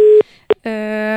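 Telephone busy tone after the line dropped during a phone interview on a radio broadcast: a steady mid-pitched beep, a short blip, then a longer harmonically rich tone, loud and alone with no talking.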